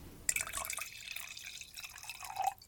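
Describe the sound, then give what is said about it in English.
A person imitates the sound of wine being poured into a glass: a steady splashing trickle lasting about two seconds, its pitch climbing slightly as the glass fills before it stops abruptly. “I'm going to make a wine pouring sound.”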